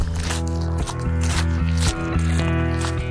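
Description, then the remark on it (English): Crunching footsteps on gravel outdoors in Queensland, Australia, a steady series of gritty, scraping steps about twice a second, heard over sustained tonal music with low, held notes. “It's being out with the breeze, with the bird song, with the kangaroos in the evening and the morning light, and the crunch on gravel underfoot is just quite lovely.”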